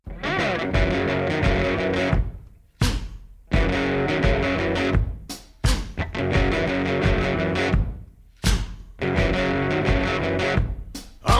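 A loud blues tune driven by heavily distorted electric guitar, thick sustained chords broken by short stops and sharp restarts, played full with no singing.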